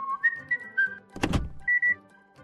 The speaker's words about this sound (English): a man whose whistle can tune a radio, remove limescale, and open a car's central locking.